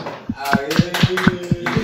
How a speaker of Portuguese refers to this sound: Palmas, palmas, palmas ao vivo. Palmas.